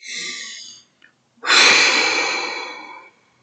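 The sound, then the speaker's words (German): A slow, deep inhale followed after a brief pause by a long, heavy exhale, both breathy with no talking. “Atmen.”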